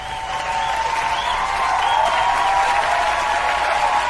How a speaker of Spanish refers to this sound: Así que esto se merece, por supuesto, un, aplauso, fuerte aplauso.